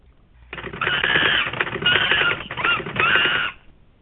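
A rapid, busy clatter of typing keys runs for about three seconds, loud, with brief pauses between bursts and no talking over it.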